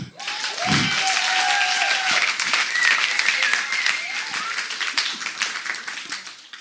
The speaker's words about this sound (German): Und es vergeht eigentlich kein Tag, davon können wir dann echt mal einen Applaus geben.